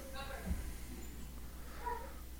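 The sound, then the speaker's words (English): A female dog barks twice, short high-pitched yips spaced about a second and a half apart, sounding faint over a low background hum. “She's barking for no reason right now.”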